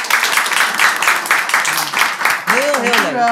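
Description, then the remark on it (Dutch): Warm applause from an audience, a dense, steady patter of many hands clapping, with a voice starting to speak over it in the final second. “Maar eerst even, mag ik heel warm applaus voor”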